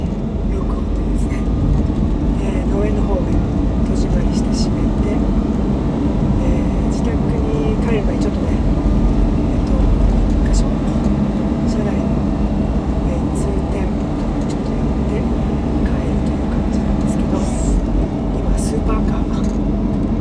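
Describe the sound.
Steady, heavy low rumble of a car's engine and tyres on the road, heard from inside the cabin, loud and continuous throughout, with a voice talking over it.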